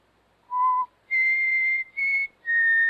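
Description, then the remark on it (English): A person whistles a short tune of four clear notes, a brief lower note followed by three higher, sustained ones with a tiny gap between them, fairly loud, with no talking. “I just whistled.”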